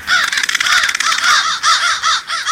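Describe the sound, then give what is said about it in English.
A dense chorus of crows cawing at once at a roost, harsh overlapping calls pulsing in rapid bursts, loud, with no pauses and no voices. “Crow experts think the roost may provide benefits like warmth, protection from predators, shared information about food sources, and a chance to find a mate.”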